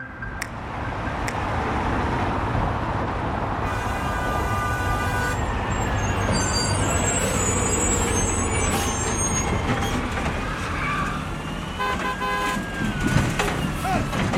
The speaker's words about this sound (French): Et tout commence euh, pour vous avec des pots d'échappement.